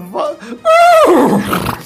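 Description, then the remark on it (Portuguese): A person imitates a horse whinny in a game of imitating animals: a short voiced lead-in, then a loud, shaky, high-pitched call that wavers and slides downward, lasting about a second. “Consegui o cavalo!”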